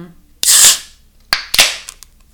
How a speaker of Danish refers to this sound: Nu synes jeg lige, at vi skal have et øh, kort øjeblik stillhed, fordi at jeg, jeg vil prøve at fange en kliklyd, og mm. håber virkelig at ikke, at den her dåse den flyder over.